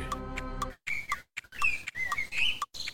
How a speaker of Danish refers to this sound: Der er en fugl, der er fuld af gæt, altså. Ja. Hvis du kunne solsortsk, så ville du måske give os svaret nu.